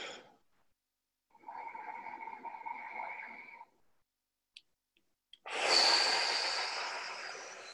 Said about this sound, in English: And maybe you could take a few nice deep breaths. Just breathing in through the nose, out through the mouth.